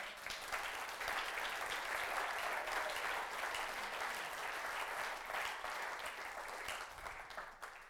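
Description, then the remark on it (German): An audience claps together in steady, dense applause given to God, holding for several seconds before starting to thin out at the end, with no talking over it. “Ja, wir können Gott ruhig mal einen Applaus geben.”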